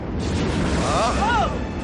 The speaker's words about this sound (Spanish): En la sala de control accionan los mandos de disparo. Los rayos se juntan en el exterior de la antena de disparo y destruyen un crucero rebelde.